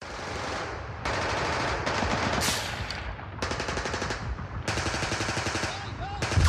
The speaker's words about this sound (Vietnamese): Cả nhà bỗng giật mình thức dậy giữa loạt súng đầu